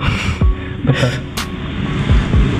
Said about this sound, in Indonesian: Suara pesawat.